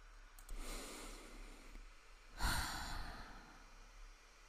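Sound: deep breathing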